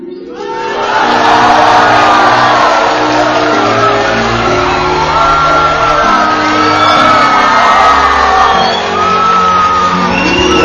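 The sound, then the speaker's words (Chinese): A loud crowd cheers continuously, with many overlapping shouts, whoops and high-pitched screams forming a dense roar that dips briefly near the end before swelling again. “反正后面都是欢呼声。”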